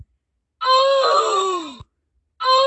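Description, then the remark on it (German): A recorded 'uff'-like groan plays from a soundboard button in an app, loud, sliding downward in pitch and ending abruptly. A second identical groan starts right after a short pause, cut off. “Und zwar einen U-Button, wo man draufdrücken kann. Danach macht, ein, macht so ein U-Geräusch.”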